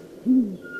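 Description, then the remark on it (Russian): A single low, mellow hoot from a male owl, a short steady tone rising out of a quiet background and fading after about a quarter second, part of a call exchange between a male and a female owl. “А более низкий такой это звук самца.”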